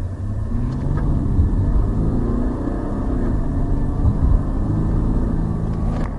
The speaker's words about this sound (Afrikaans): My toetsmodel, die CRD, net teen luierspoed kan jy hoor dis 'n diesel.